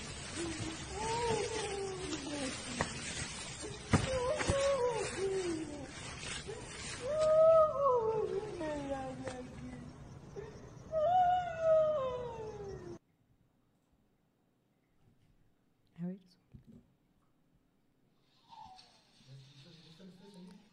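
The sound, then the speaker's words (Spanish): A cat yowls in long, wavering cries that rise and fall repeatedly over a noisy background, recorded on a mobile phone, loud for about thirteen seconds, then gives way to near silence with a few faint sounds. “Era un gato, ponen.”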